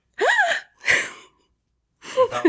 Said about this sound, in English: Give me a gasp of fright.